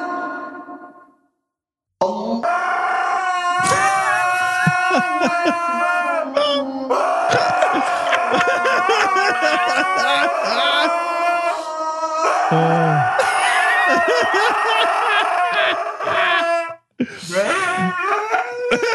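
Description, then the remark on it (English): A dog howls in long, wavering, rising and falling wails over the last chanted call to prayer of the evening. The sound is loud and nearly continuous after a brief quiet opening. “That, dog sounds like fucking Chewbacca.”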